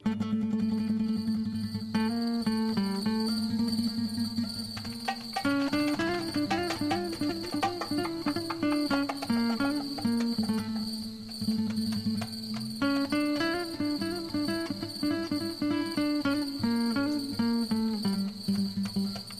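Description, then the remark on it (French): Crickets chirp in a steady, unbroken high trill at night in Nsujini, Comoros, loud and constant for the whole stretch, with a faint melodic tune weaving underneath. “Est-ce que nous sommes bien dans la nuit de Nsujini aux Comores oui, plus dans les grillons que dans la mélodie, mais euh, c'est assez intéressant.”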